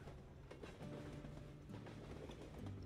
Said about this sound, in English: The sound of the tracks hypnotically sending you to sleep.